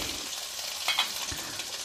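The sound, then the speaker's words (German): A small pot filled to the brim with potatoes boils over onto a hot stove, giving a steady sizzling hiss with a couple of brief, louder spits and crackles partway through. No one speaks. “So, ja, das kocht hier gerade ein bisschen über.”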